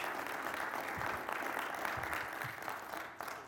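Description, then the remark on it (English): An audience applauds steadily for the speaker's wife on their 50th wedding anniversary, a dense, crackling wash of many hands clapping at once that holds at an even level for a few seconds with no one talking over it. “no doubt you're applauding for her”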